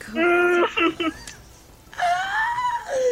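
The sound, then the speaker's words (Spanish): Soft, high-pitched whimpering cries come in two short bursts separated by a brief pause, the wavering tone rising and falling. “llora poquito, ¿verdad?”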